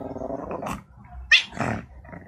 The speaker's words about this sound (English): Wow! Now I've seen it all. A barking cat.